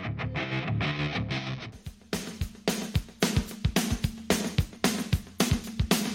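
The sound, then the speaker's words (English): Punchy intro music for the radio show the Big Yellow School Bus on 101.7 WKOM Columbia opens with a held, layered chord, then kicks into a steady driving beat of loud drum hits under a gritty, distorted full-band sound. No one speaks. “Thank you, WKOM, for that wonderful introduction and music for the Big Yellow School Bus.”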